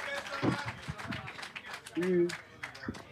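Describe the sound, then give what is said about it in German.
An audience applauds with a dense, steady wash of clapping, mixed with cheering and a few voices calling out over it, holding at a fairly loud level for a few seconds. “Dein Applaus.”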